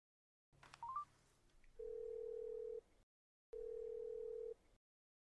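A few quick beeps of a phone being dialed to call someone's mother, then two long, steady ringback tones with a silent pause between them, heard clearly with no voices.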